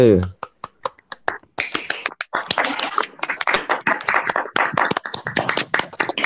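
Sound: group clapping hands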